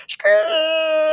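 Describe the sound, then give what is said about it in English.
A voice imitates the squeak of styrofoam rubbing together: a short breathy burst, then one steady, strained, squeaky tone held for about a second, loud. “Like if you ever, you know, the sound that that styrofoam makes when it's when it's rubbed together.”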